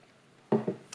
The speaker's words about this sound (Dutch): Ik doe nog heel een slok water.